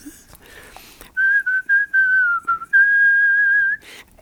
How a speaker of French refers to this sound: Moi, je sifflais n'importe quoi. Puis quand je rentre en dedans, au peine particulièrement, moi, je sifflais. Je filais des tonnes.